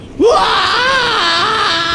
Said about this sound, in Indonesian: Di tengah pantai itu, Rambo berteriak melepaskan stresnya.